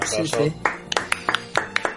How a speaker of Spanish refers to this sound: Pero ahora también vamos a dedicarle el programa a esos chinos que abren todo el día. Un aplauso, para los chinos.